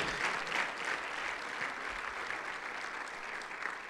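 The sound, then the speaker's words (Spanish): An audience claps their hands for the King of Kings in a steady, dense wash of applause that holds at an even level for several seconds, with no voices standing out. “Aleluya, denle palmas al Rey de Reyes.”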